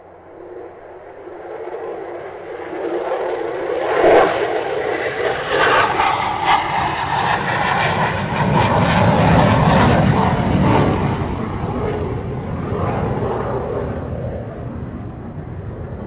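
A heavy, sustained engine roar builds from a quieter start into a loud, steady rumble, like a jet airplane powering up for takeoff, with no talking over it.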